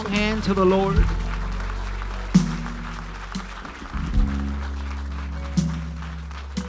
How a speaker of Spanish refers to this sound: un fuerte aplauso al Señor entonces.